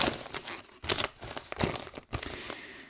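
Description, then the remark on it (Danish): Crisp crinkling and rustling of paper as a letter is unfolded and opened, with several sharp bursts of crackle over about three seconds and no talking. “Får vi åbnet op her.”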